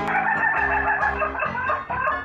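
A rooster clucks and squawks loudly for a couple of seconds, a busy run of harsh, overlapping calls with no voices alongside.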